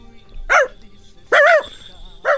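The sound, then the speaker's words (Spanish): A person imitates a dog barking, giving three short, loud woofs spaced roughly a second apart, each a voiced, rising-and-falling yelp with quiet gaps between. “Quiero que digas, hazle como el perro.”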